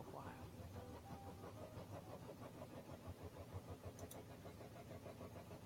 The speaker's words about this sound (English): Can you hear that? Can you hear that? That's my washing machine. I'm sorry if you are hearing it. Um, hopefully, it's not too bad, not too distracting.